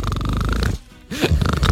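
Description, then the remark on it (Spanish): A person imitates snoring with a loud, rattling, engine-like buzz, pauses briefly, then resumes with a rising grunt and more throaty rumbling. “Como decía uno, yo no ronco, yo lo que pasa es que sueño que soy una moto.”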